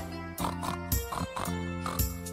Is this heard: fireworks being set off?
no